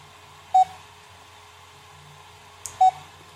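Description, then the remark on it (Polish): Two short electronic beeps from a device that is processing a photographed image and having trouble recognizing it, signalling that it is still working. The beeps are spaced about two seconds apart and sound clear over a low steady background hum, with a faint click just before the second beep. “Pika sobie pika, ma problemy z rozpoznaniem.”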